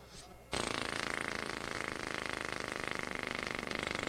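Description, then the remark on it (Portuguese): A small 50cc moped engine, said to do 60 kilometres on one litre, starts up abruptly after a brief quiet moment and keeps running loud, with a rapid, steady buzzing putter throughout. “Nossas, sim, ouve o sol ao motor da cinquentinha, que faz 60 quilômetros com um litro, ó.”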